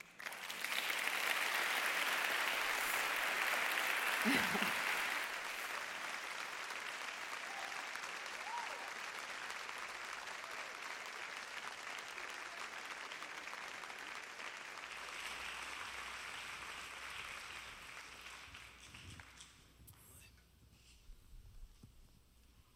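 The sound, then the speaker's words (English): A crowd in Kensington Church applauds loudly, a dense wash of clapping that is strongest in the first few seconds, then gradually thins and fades over about twenty seconds, with a brief laugh near the start. “We can clap for her one more time.”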